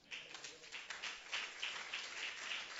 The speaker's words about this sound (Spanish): Voy a dar un aplauso a Cristo que está ahora.